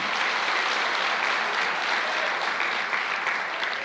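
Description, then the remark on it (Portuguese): A crowd applauds steadily after being asked to give a round of applause and a louder amen, a dense wash of many hands clapping at once, sustained and fairly loud for a few seconds before easing slightly at the end. “Se você crê nisso, dá uma salva de palmas e dá um amém mais forte.”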